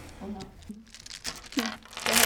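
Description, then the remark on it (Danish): Someone rummages through a small dice bag for dice before a vampire role-playing game, its rustling and crinkling growing louder toward the end, while a person speaks over it. “jeg var lige ved at glemme mine øh, terninger”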